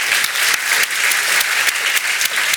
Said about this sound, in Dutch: Graag een applaus.